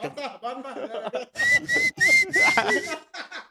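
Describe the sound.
A voice speaks briefly, then someone close by whistles loudly in several short bursts with rising, swooping pitch, ending with a couple of fainter whistled notes.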